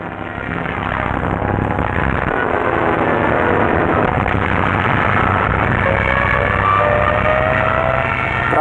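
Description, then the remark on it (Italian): A heavy, continuous roar of aircraft engines fills the scene, loud, with a thin whining tone rising over the drone near the end, as in an American air raid that destroys the Nazi palace of justice. “Proprio quel giorno un raid aereo americano distrugge il palazzo di giustizia nazista”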